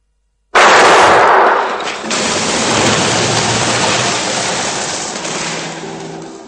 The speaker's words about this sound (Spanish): Las palomas que había dentro de la catedral salen volando asustadas por el fuerte disparo.